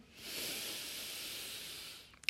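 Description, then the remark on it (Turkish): A long, airy deep breath in and out, steady, rising gently then tapering off near the end, with no talking alongside it. “Güzel derin kocaman bir nefes alıp verin şimdi.”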